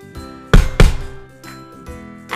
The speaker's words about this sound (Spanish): Al poco rato llamaron a la puerta